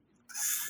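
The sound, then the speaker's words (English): A dog gives a single short, breathy vocalization, a hissy, high-pitched burst lasting about half a second after a brief quiet moment, with no talking. “So anyway, so my that's my dog, man.”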